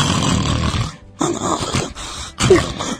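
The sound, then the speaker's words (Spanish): A voice imitates a man's loud snoring with three rough, raspy, forceful bursts separated by short pauses, with no other talking. “en el momento que ya no escuchaste al tipo roncar ahí.”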